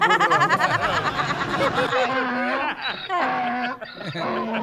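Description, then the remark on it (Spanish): A donkey brays in loud, raspy, rhythmic heehaw cycles, played by a DJ as a sound effect, harsh and wheezing at first, then settling into lower honking pulses that repeat steadily over several seconds. “Cada que pones ese burro, carnal, a mí se me que te, te gusta el yogur a cucharada, loco.”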